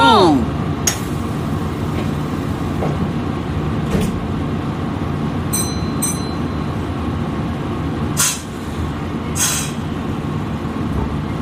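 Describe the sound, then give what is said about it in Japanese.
The engine of a KiHa 40 diesel railcar on a non-electrified line in Japan rumbles deeply and steadily as the train pulls away, fairly loud, with a few short bursts of hissing air breaking through the drone. “まあ、あの本当ディーゼルエンジンでガツンと走るっていうやつのことを、まあえー、ディーゼルカーえで今日はねその中でキハ40っていう車両に乗ってきたっていう話をしようと思います”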